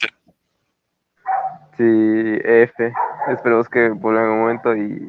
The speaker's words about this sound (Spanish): y perdón por los perros, pero mis vecinos, como siempre, arruinan mi vida.